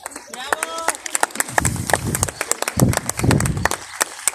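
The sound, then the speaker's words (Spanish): A crowd applauds a recyclers' organization contingent linked to the Latin American and Caribbean Recyclers Network (Red LACRE), steadily throughout, sharp overlapping claps forming a dense, even patter, with a brief voice at the start and murmuring, cheering voices swelling underneath midway. “Un fuerte aplauso.”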